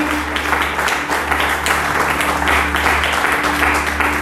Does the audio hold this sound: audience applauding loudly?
yes